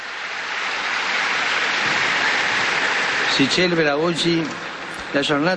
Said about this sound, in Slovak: Jeden veľký potlesk pre tohto nového blahoslaveného.